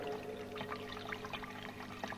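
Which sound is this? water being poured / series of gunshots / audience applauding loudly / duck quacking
water being poured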